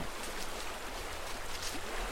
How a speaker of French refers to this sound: Donc on entend juste derrière la rivière.